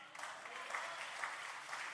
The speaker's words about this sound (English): You give him a big applause for that because he's preparing a place for you and me.